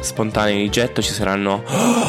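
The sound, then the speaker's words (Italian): A man talks quickly in a dry voice, then finishes with one sharp, breathy gasp, a quick audible intake of air that stands out clearly at the very end. “i respiri, ci saranno la gola che fa così, e tante altre cose, tante altre disavventure che normalmente edito via.”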